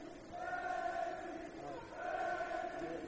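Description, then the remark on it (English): A basketball game's student section chants "Reggie" in unison as a player shoots free throws for the Hawks: two long drawn-out phrases with a short dip between them, loud and reverberant. “You hear the student section chanting Reggie.”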